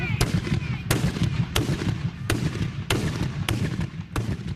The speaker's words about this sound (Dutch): Het kabitschieten mag dit jaar wel doorgaan, maar verknal het niet.